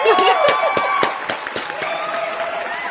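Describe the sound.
A crowd claps in scattered, irregular bursts amid cheering voices and chatter. The applause is loudest at first, then thins out toward the end.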